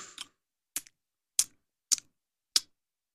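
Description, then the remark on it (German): Someone imitates lip-smacking while eating: six or so short, wet smacking clicks in a steady, evenly spaced rhythm, crisp and bright, with no talking in between. “Und ich rede natürlich, meine lieben, wunderschönen Zuschauer da draußen und ihr zwei hübschen Jungs vom Schmatzen.”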